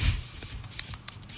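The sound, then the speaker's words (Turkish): A voice imitates a rabbit chewing, turning leftover food in its mouth, with quick, soft, repeated mouth clicks and smacks in a loose rhythm, fairly quiet, with no talking. “bir şey çiğniyor şu anda bu.”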